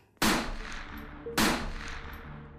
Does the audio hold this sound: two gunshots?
yes